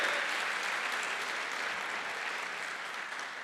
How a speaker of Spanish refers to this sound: Dele fuerte ese aplauso al Señor. Fuerte ese aplauso al que vive.